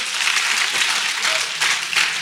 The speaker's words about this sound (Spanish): Alguien tiene que aplaudir por la misericordia de Dios.